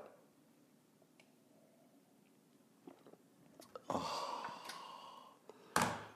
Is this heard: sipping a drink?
yes